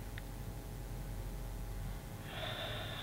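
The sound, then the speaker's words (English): After a few quiet seconds of soft background hum, a slow, airy breath is drawn in, a deep inhale into the belly with no talking, as part of a guided breathing exercise. “Breathing deep into your belly and relaxing the air out.”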